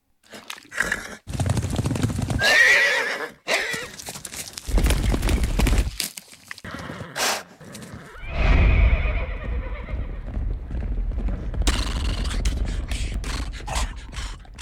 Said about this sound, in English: Oh, did you just do it? Did you? Was that a horse noise right there? I gave you a little one.